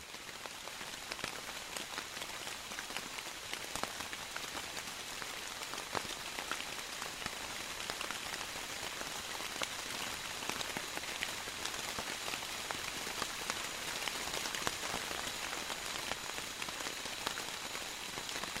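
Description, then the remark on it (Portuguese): Steady March rain patters down on leaves of the forest canopy in Bocaina, a dense, continuous hiss with scattered sharper drops ticking through it, constant in loudness for the whole stretch, with no voices. “As águas de março fecham o verão na Bocaina.”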